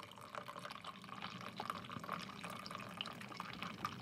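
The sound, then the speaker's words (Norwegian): A steady stream of liquid splashes continuously for several seconds, a person urinating, with a bright, trickling hiss and scattered droplet sounds at an even, moderate level, no voices. “Unnskyld, jeg skal bare tisse litt.”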